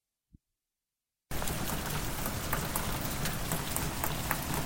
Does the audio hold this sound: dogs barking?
no